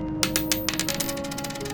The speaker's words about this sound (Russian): Повисшие в воздухе вопросы растворились как дым, когда за дверью послышался звон монет.